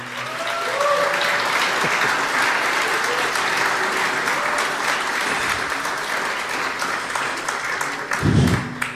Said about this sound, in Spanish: Aplauso para ellos, por favor.